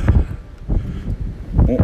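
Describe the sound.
Gusts of wind blowing from behind the speaker buffet the microphone with a loud, low rumbling roar that swells and fades unevenly, with a voice briefly audible near the end.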